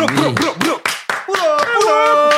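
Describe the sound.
Hands clap in a steady run of about ten sharp, loud claps, each a crisp slap, in an apartment, while voices or tonal sounds carry on underneath.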